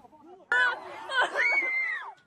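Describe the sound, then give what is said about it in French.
A sudden burst of loud, high-pitched shouting and screaming from several distressed residents, pleading with police in full-body protective suits pushing through the crowd during clashes over a coronavirus lockdown, lasting about two seconds over a low murmur of voices. “D'autres supplient et hurlent leur désarroi face à ces policiers vêtus de combinaisons intégrales de protection et qui tentent de progresser parmi la foule.”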